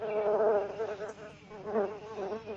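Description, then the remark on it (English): A bee buzzes in a steady, droning hum whose pitch wavers up and down for a few seconds, with no talking over it. “Mother Bear hears a bee buzzing.”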